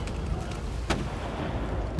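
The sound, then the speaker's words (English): A ship's gun fires at the beach: a single sharp, booming blast about midway through, rising over a steady, noisy low rumble that continues throughout. No one speaks. “He orders his men on the ships to fire their guns at the beach, hoping to scare the native raiding party back while the rest of his men escape.”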